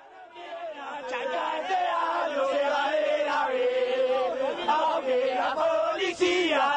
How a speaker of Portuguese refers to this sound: E é isso que o, que o pessoal do Chacarita se revolta. Então, o que a gente vai ouvir no grito aí é que, mesmo se a AFA não quiser, a gente vai subir da B, a gente vai, vai, vai embora dessa categoria.